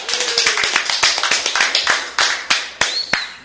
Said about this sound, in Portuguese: Palmas pro G4